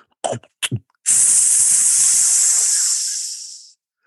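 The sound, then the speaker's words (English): Two quick plastic clunks from a SodaStream soda maker's lever, pulled down once, then a loud, steady hiss of gas rushing into a bottle of tap water for a couple of seconds, carbonating it, before it tapers off and stops. No one speaks. “You pulled it down once and it made this noise.”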